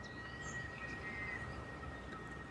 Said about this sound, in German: Vielleicht hörst du im Hintergrund dieses exotische Gezwitscher, vielleicht auch so ein Pfeifen. Das ist zu dieser Jahreszeit eine ganz bestimmte, so eine Art Zikadenart, die sich absprechen, wie im Schwarm.